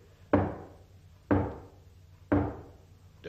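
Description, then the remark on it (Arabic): Heavy knocking on a door: three loud, resonant thuds spaced about a second apart, each ringing briefly before fading, with a fourth knock just beginning as it ends. No voices. “خبطة المعلم زقزوق اديني جبتهولك لغاية هنا بالذوق افتح له يا حنيشة”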